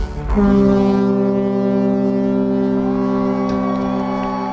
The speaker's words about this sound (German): Und tatsächlich, nur zehn Minuten später rauscht der russische Eisbrecher heran und stoppt vier Strich Steuerbord, keine 100 Meter vom Bug entfernt.